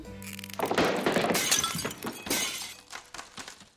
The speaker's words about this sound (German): Oh nein, alles kaputt. Der ganze Baum auf dem Boden, die Kugeln zerbrochen. Da war der Kater aber ganz schön ungeduldig.